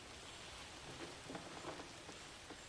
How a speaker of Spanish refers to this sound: Sí, mira, por ejemplo, aquí, aquí están vacíos y creo que dentro de un poquito empieza a llover y se escucha la tormenta y se empiezan a llenar los... Ahí están llenos ya, los charquitos, sí. Ahí están a medio llenar, mira cómo se pone.